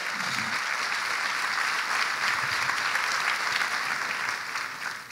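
audience applauding

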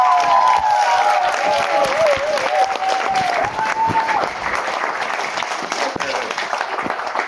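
audience applause welcoming comedian

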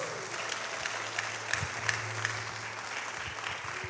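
audience applauding

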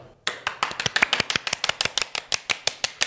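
hands clapping

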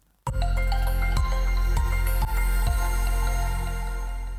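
loud bell ringing

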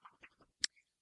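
dog shaking its head

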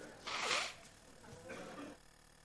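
nose blowing

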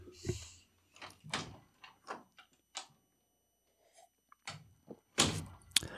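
door opening and closing

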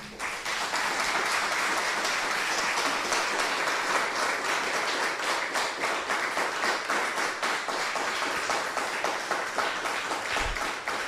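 loud audience applause

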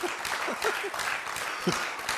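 audience clapping

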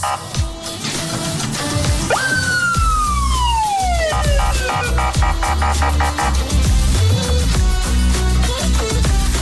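emergency siren

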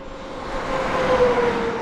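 highway traffic passing by

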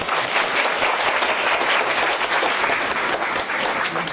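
audience applause

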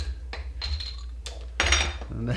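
beer bottles clinking

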